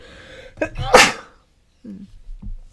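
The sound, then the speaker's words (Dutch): A single loud sneeze with a sharp intake of breath before the explosive burst, followed by a short pause and a few quiet vocal sounds. “nu zeg je waarschijnlijk gezondheid, dus dankjewel.”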